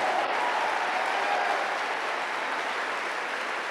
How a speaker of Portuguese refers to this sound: Se você crê que esse problema não é definitivo, dá mais um aplauso bem forte ao Senhor, bem forte.